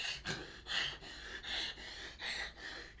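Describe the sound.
A voice imitates Roy Jones Jr. gasping for breath after rounds, about six sharp, breathy inhales and exhales in a quick steady rhythm, with no talking.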